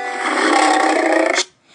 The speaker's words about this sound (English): Roaring like a lion.